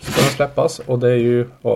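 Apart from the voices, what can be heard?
dog sneezing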